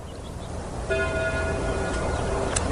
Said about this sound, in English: At that moment, the church bells began to ring. The sound reached his ears. Above the sounds of the wind, and he stood there listening to the bells.